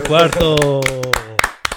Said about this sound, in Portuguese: um deles que certamente ouviu o nosso podcast foi o Lorenzo Salvadori, porque ele fez dois primeiros pontos no MotoGP. Palmas para ele.